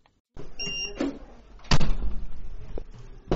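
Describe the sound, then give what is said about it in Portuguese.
A hospital ward door swings shut with one heavy thud, preceded by a brief high squeak and soft rattling, then a low rumble and a few light knocks as it settles. “Entrar pela primeira porta, trocar o uniforme e passar pela segunda porta até a enfermaria.”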